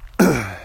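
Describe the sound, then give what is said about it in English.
A single sharp cough from a person with a head cold, bursting out abruptly and trailing off into a short, rough voiced tail, with no speech around it. “excuse me, got some a little bit of a head cold too, I think, today, so y'all forgive me.”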